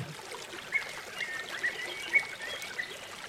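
A river flows with a steady, even rush of water, and a few faint high chirps rise briefly above the wash. No one speaks.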